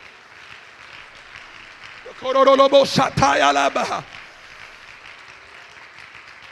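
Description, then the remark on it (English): A crowd claps continuously as a steady wash of hand claps, while a loud voice calls out over it for a couple of seconds in the middle. “Like my God, you ought to praise God and clap your hands in the house.”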